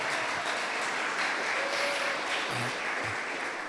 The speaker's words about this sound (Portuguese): E se você crê nisso, aplauda Jesus bem alto.